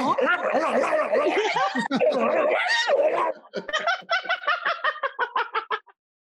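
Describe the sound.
A voice mimics a dog fight with rapid snarls, yelps and sliding growls for a few seconds, then dissolves into a string of rhythmic bursts of laughter.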